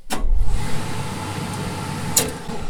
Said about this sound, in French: J'appuie sur ce bouton rouge et ça envoie de la vapeur. Alors déjà en haut, mon fer il est suspendu sur un rail. Alors déjà ça, ça fait du bruit. J'envoie la vapeur, ça fait ce bruit.